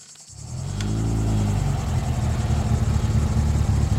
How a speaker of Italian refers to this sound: Il rombo di una macchina la sveglia di soprassalto.